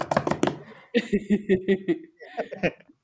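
A chair slips and knocks several times in a quick clatter at the start, followed by someone breaking into short, rhythmic chuckling laughter.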